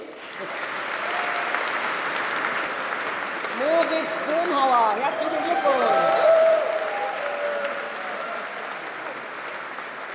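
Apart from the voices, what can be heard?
audience applause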